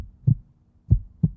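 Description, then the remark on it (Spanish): A heartbeat sound effect in a La Salle Radio station ident from Mexico City ('tu latido'): three deep, muffled low thumps, a single beat followed by a quick lub-dub pair, moderately loud with no voices. “La Salle Radio, tu latido.”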